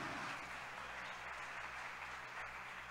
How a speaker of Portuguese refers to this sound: Se você crê, dê um aplauso ao Messias, glorifique o nome dEle.